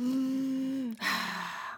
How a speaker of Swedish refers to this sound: sen försöker jag djupandas vet du, så här mm. verkligen så här.